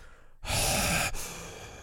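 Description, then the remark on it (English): A voice imitates heavy breathing during sleep, not snoring: one long, loud, airy exhale, briefly catching, then trailing off into a softer, breathy tail with no talking. “Sleeping is loud. It's not snoring.”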